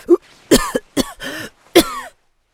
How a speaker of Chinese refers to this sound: 说着说着，他猛然的咳嗽了一阵，正到床边，又吐了一口鲜血出来。